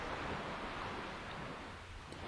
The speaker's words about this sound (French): Le son du vent et de la mer s'éloigne un peu